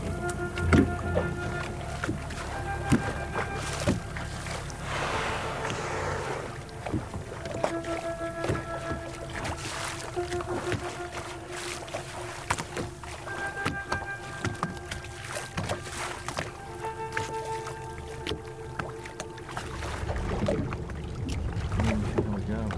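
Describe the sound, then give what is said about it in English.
A small boat, stopped and floating on the surface of the open sea over water 1,200 feet deep, drifts: steady wash and lapping around the hull, creaks and knocks, low hums, and faint indistinct voices in the background. “Well, we've stopped and peacefully we're floating on the surface of the sea because two blue whales had effectively circled our boat”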